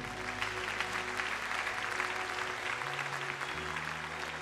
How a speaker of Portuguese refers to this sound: Aplauda o Senhor que é bom.